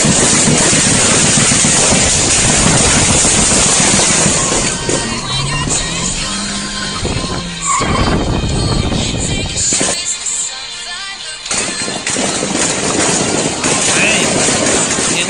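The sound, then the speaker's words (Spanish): A car engine revs and accelerates as its driver speeds toward a gas station during a shootout near Avenida Universitarios, its pitch climbing through a loud, rushing wash of road and wind noise that briefly thins out before surging again. “él va reportando y él acelera su coche.”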